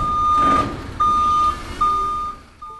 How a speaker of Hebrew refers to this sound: טוב, כמעט סיימנו, קול של רוורס.